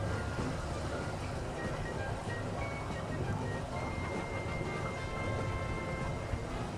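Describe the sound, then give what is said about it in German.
Gurgling water runs steadily throughout in the mountains as the sun sets, a dense, continuous wash of sound at moderate loudness with no pauses, heard on its own without anyone speaking. “Ihr hört so ein bisschen das äh, Gluckern vom Wasser, ja.”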